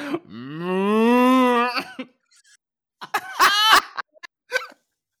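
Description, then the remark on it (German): A person imitates a cow with one long, rising and falling moo, followed by a few short throaty grunts and cough-like bursts, fairly loud. “Stell dir vor, ich lasse einfach so eine Kuh raus.”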